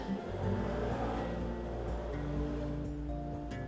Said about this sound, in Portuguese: Desculpa com a moto.